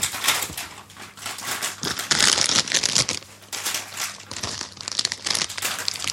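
A blue Kettle Sea Salt and Balsamic Vinegar crisp packet is torn open and handled, giving loud, continuous crackling and crinkling in dense bursts for several seconds, with no one speaking.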